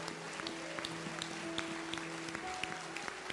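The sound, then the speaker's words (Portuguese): An audience claps together for God in a steady, dense patter of applause, with a low sustained tone humming faintly underneath throughout. “Aplaude o teu Deus, aplaude.”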